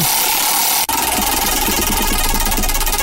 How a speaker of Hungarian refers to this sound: Na nem figyelj, megpörgetjük a kereket, jó? Figyelj, okay, pörgetünk okay.